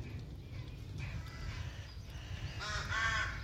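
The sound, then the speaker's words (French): Rooks caw hoarsely over a steady low rumble of thunder, with a faint call early on and a louder burst of overlapping raspy caws near the end, from a colony nesting in the tallest trees of the village of Noyers-sur-Serein, Yonne, France, in April. “Parmi eux, reconnaissable entre tous avec son plumage noir d'un éclat métallique, le corbeau freux. Il niche en colonie dans les plus hauts arbres du village.”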